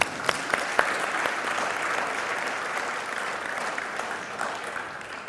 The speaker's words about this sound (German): Der Applaus galt nochmal allen Müttern hier im Raum, die das so leben.